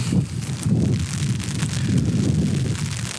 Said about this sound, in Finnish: oho, täällä tuulee ja tämä rikkinäinen sateenvarjo pullistelee.